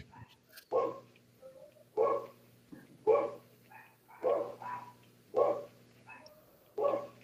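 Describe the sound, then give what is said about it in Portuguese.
Dogs fighting, barking and scuffling, a series of about six loud, harsh barks repeating at a steady pace with short gaps, over a faint constant hum. “Excelente hora para os cachorros brigar, né?”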